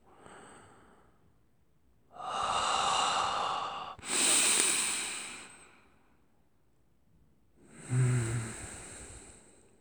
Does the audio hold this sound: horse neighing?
no